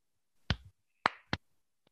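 A short rhythmic 'tepuk salut' clap pattern given as a salute to tutors: three sharp, loud claps with uneven spacing, followed by a faint fourth tap. No voices are heard.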